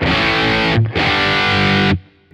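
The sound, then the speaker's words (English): A heavily distorted electric guitar tone from an amp profile, the original tweaked and original set, rings out in two loud, sustained chords separated by a brief gap, thick and buzzy with a dense harmonic fizz, then cuts off into a faint tail. “So here we have the yeah original tweaked and here's the original set.”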